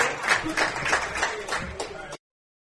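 A small group claps steadily for about two seconds, moderately loud, with murmuring mixed in, at Home Team Pub in Liverpool for guests from the Liverpool boys basketball team, before the sound cuts off abruptly.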